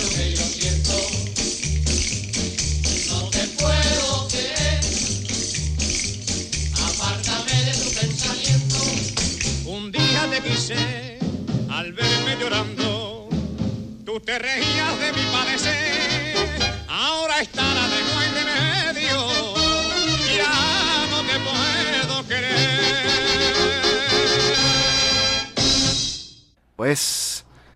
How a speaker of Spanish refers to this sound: Qué sabroso escuchar la voz gitana